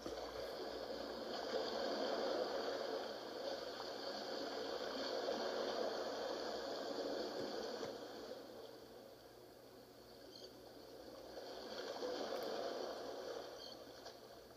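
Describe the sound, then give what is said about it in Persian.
Soft, steady wash of gentle sea waves lapping at the shore, swelling and easing in slow, unhurried surges, quiet and continuous with no voices. “صدای امواج رو میشنویم امواجی که در آرامش هستند و به آرومی به کناری دریا برخورد میکنن امواجی کوچیک و آروم که آروم میان و میرن”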